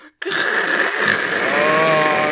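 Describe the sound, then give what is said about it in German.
A voice imitates a dental saw cutting a tooth in half while the patient is awake under anesthesia: a sustained, raspy buzzing whine lasting about two seconds after a brief pause, loud, with no other talk. “aber der Zahn von der Hälfte durchgesäbelt ja, werden.”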